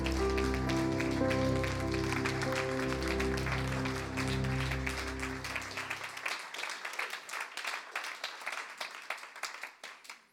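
A standing audience applauds to welcome a speaker onto the stage, with dense, steady clapping and music playing underneath for the first half; then the music stops and the clapping continues alone, thinning into scattered claps before fading out.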